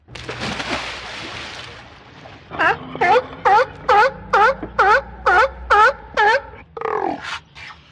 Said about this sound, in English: Here's a splashy time with the happy sea lions.